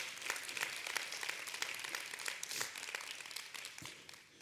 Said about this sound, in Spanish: Y le damos un fuerte aplauso si ellos están aquí con nosotros.